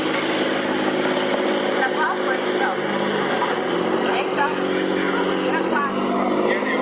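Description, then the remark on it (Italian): Boat traffic on the Grand Canal in Venice, heard while crossing the Ponte degli Scalzi: a steady, loud mix of droning motor engines with low humming tones, continuous for the whole stretch, with indistinct voices murmuring underneath. “Ho notato che c'è molto traffico nel Canal Grande.”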